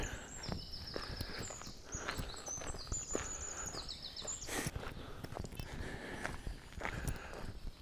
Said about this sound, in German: Das sind Vögelchen wieder schön am Zwitschern, das gefällt mir immer recht gut.